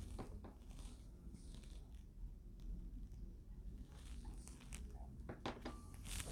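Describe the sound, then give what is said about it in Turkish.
Someone quietly sips water, with soft gulps and a few small clicks and knocks of the cup or bottle over a low background hum. No one speaks. “Bir yudum su içeyim.”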